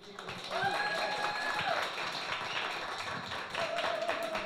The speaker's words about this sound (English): Give it up another round of applause, please.